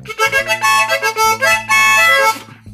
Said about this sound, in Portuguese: Vou fazer um teste, eu vou ficar mais longe do microfone. Estou longe, estou longe. Agora eu vou tocar uma gaitinha de boca.